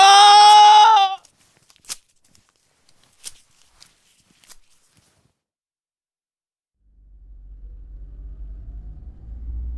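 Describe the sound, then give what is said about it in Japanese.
A steady low engine rumble of riding inside a moving van heading back to the workplace through an entertainment district with neon lights; it rises in the last few seconds, after a brief bleat-like cry and a few sparse clicks in near silence. “職場へと戻るワゴン車に揺られ歓楽街のネオンライトを見つめながら今日までのことを思い返していた”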